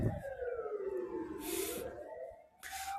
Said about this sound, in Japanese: ちょっとピーポーが、すいません、うるさくて。